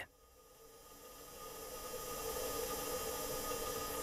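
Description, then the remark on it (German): A steady mechanical hiss and hum inside a spacecraft during its cruise to Mars, recorded on the flight of the Mars rover that landed in 2021, with faint sustained tones, swelling gradually louder over a few seconds with no voices or distinct events. “So klingt es dann, wenn man unterwegs ist zum Mars. Das Geräusch stammt vom Flug des neuesten Mars-Roboters, der 2021 gelandet ist.”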